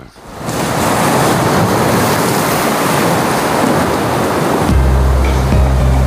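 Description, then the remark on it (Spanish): Sea waves crash in a loud, continuous roar of surf that swells in quickly and holds steady, with a low droning tone entering near the end. “Vamos al mar.”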